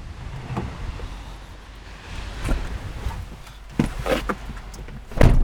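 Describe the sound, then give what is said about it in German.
Someone climbs into a car named Castiel: soft rustling and shuffling, a few thumps and clicks, then a heavy door shuts with a solid thud near the end. No one speaks. “Ähm, so hört es sich an, wenn man in Castiel einsteigt.”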